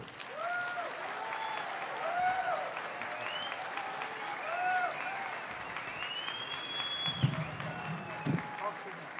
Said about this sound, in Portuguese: Vamos receber com muito entusiasmo, com muito carinho, com muitos aplausos, professor Clóvis de Barros Filho.